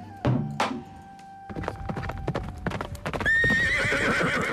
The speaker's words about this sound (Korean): 그렇게 진흙탕 싸움이 이어지던 그 순간 제 멀리 말발굽 소리와 함께 흙먼지를 날리며 달려오는 한 남자가 있었으니